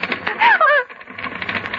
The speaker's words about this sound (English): typewriter! Look at the typewriter! Typing. And there's no one. Who's typing? Who's typing?